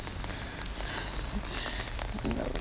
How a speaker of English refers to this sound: Rain, rain everywhere this morning.